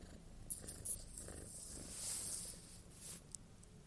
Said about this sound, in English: and right now I'm lying in bed at home for spring break, and I have my cat on me. Let's see if you can hear her purring.